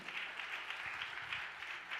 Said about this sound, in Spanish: ¿Cuánto le da un aplauso fuerte?